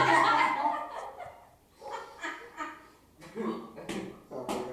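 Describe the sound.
A dog named Marisco makes noise, with short sharp bursts that sound like barking, heard over and between a person talking.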